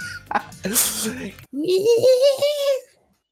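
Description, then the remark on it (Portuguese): A person vocally mimics the eerie ambient noise a nearby ravine makes in Minecraft: a breathy, hissing burst followed by a sustained, wavering tonal hum that rises slightly and fades out, performed fairly loud. “É verdade, quando tem uma ravina perto, solta aquele barulho assim.”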